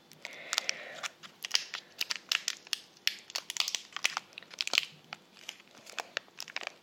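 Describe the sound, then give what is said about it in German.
An effervescent bath tablet, coconut variety, being broken apart to take off a piece: a steady run of dry, sharp crunches and crackles, irregular and fairly quiet, with no voices over them. “Ich bin super gespannt und ich hoffe, ich kann so ein Stück davon abbrechen, weil ein ganzer ist ja für eine ganze Badewanne.”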